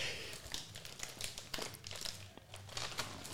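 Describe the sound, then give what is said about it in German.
Crinkling of a plastic bag of Takis Blue Heat snacks as a hand reaches inside, with irregular bursts of crackly rustling throughout and no talking. “Lass mal in die Takis reingreifen.”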